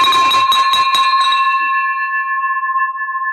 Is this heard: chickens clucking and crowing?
no